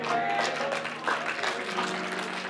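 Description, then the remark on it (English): An audience claps together in a steady, dense burst of applause, with scattered voices murmuring underneath and a few higher tones ringing through the crowd noise. “You don't have to clap.”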